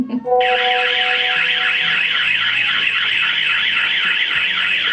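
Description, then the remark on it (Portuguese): A loud electronic alarm rings continuously, a harsh warbling tone that pulses rapidly and steadily for the whole stretch, unbroken, with no voices. “Vamos dar um bom dia para esse dia lindo, esse alarme no seu ouvido.”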